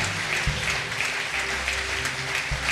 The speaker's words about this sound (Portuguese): Mais uma vez vamos aplaudir o nosso Deus. Oh Deus, nós aplaudimos o Teu nome, Jesus. Nós aplaudimos a Tua palavra.